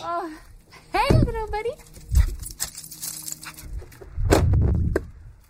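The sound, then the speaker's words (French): A small dog runs out of a large brick house to greet an arriving visitor, who bends to pet it. It whines and yips excitedly, with a few high, wavering cries early on, followed by snuffling, shuffling movement and a louder muffled burst near the end. “Son petit chien court m'accueillir et je me penche pour le flatter.”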